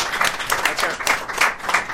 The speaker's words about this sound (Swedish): Uh, en applåd till honom.